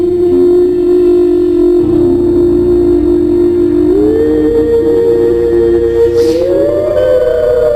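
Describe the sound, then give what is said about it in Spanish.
Whistles blow in one long, loud, unbroken tone that holds steady, then steps up in pitch partway through and climbs again near the end. Nobody speaks. “Ahí los pitos. Es sonando.”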